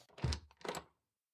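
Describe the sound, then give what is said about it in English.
A closet door opens with a low wooden thunk from the latch, quickly followed by a second rustling, creaking burst as it swings. Two short sounds, no voices. “Let me open the door for you, but I recommend that you don't go inside yet.”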